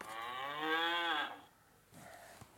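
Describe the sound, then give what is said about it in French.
A single loud, drawn-out cow moo with a rich harmonic tone lasting over a second, followed by quieter breathy rustling and a faint click. “Ses cris réveillent la vache.”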